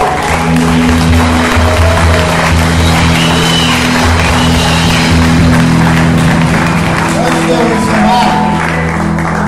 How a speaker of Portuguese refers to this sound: Antes de eu dar pode palmas, uma salva de palmas a Deus.